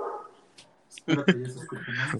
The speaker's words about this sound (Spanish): fue un güey de la calle, un güey, un perro de la calle. un güey ladrando en la calle. un vagabundo, ¿no?